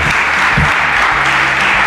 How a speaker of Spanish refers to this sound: Esperabas esta ovación, nada más saludar, ¿no?